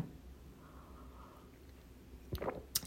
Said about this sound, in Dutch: En ik zat weer een slokje te nemen van mijn matcha thee.